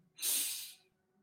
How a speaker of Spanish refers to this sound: En este momento inhalo